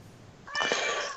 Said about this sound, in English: Um, I'm sorry, my cat is responding.